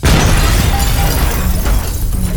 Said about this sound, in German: In ihrer Hamburger Filiale ist nämlich zwei Wochen zuvor in der Nacht eine Bombe explodiert.